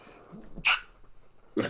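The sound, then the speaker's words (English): A single sharp sneeze bursts out against a quiet background, followed moments later by a second brief, breathy burst of sound. “Bless you.”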